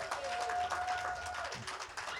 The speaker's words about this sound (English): Can y'all guys give him a round of applause?